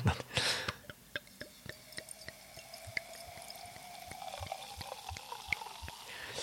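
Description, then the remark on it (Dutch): A fizzy drink is poured, a rising liquid stream under a quick patter of tiny popping clicks as bubbles burst, with no voices. “Oh, dit zijn niet zomaar bubbels.”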